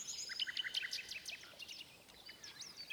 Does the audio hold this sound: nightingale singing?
yes